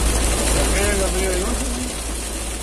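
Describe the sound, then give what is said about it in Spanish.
Rain and hail drum steadily on a car moving at about 200 speed, windshield wipers running faster, a dense, unbroken hiss over a low engine rumble, with a faint voice briefly audible underneath. “Sí, pues mira, aquí les voy a compartir un video de la, de la, de la lluvia.”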